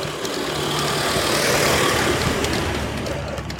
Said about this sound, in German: Oh, da kommt ein Bulli.